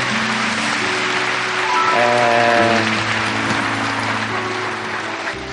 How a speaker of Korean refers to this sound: 여러분 박수 한번 보내주시기 바랍니다.